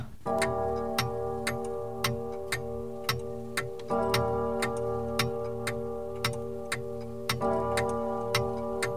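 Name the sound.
clock ticking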